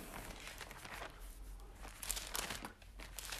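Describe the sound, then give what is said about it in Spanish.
Thin pages of a paper Bible rustle and flip for a few seconds as someone looks up John chapter 3, a soft continuous crinkling with a few sharper swishes, fairly quiet, with no talking. “Yo todavía tengo que usar mi Biblia de, de hojas para que la oigan, ¿sí?”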